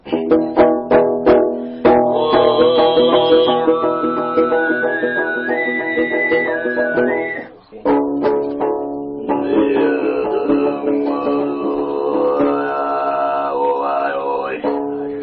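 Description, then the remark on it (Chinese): Hoomei throat singing in its high whistle-tone style, the hardest technique: a high, whistle-like overtone melody gliding over a steady low drone, performed in two long sustained phrases separated by a brief breath, preceded by a few short rhythmic pulses. “最难的一叫高音，也叫哨音，跟口哨一样。”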